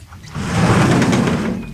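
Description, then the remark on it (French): A French window slides open in one continuous rolling rumble with a slight scrape, fairly loud, lasting under two seconds with no voices. “Porte, fenêtre, jardinet.”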